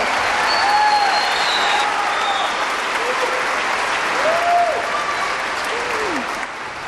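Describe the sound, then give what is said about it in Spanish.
Sustained applause from a large audience for the musicians of the Orquesta Filarmónica de la UNAM, a dense, steady wash of clapping at a loud, even level, with a few whistles and cheers rising above it before it tapers slightly at the end. “Fuerte aplauso para todos los maestros.”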